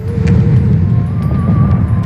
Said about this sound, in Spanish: Escuchamos cómo lanzan, viajan y explotan los cohetes, un ejemplo de los casi 10.000, 5.000 en 20 minutos lanzados desde Gaza a territorio israelí.